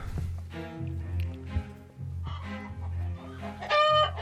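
Chickens cluck steadily, their calls overlapping, and a rooster's bright crow rings out near the end above a low, continuous background rumble.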